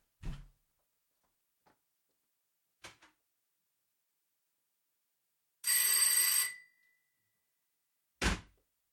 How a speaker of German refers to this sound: Ich glaube, man hat's, ich glaube, man hat's gehört, ziemlich sicher. Es ist eine ziemlich laute ätzende Klingel.